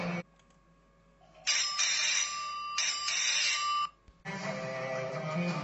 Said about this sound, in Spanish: Escuchó el timbre de la casa de al lado.